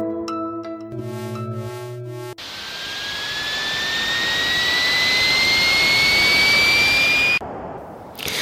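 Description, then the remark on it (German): A burst of bleepy 8-bit tones gives way to a loud, sustained electronic jet-engine roar with a steady whining pitch that slowly swells before cutting off abruptly. No one speaks. These are game sounds from a classic 1980s video game. “Was Sie jetzt noch im Hintergrund hören, sind Spielgeräusche eines Game-Klassikers der 80er Jahre, Raid over Moskau.”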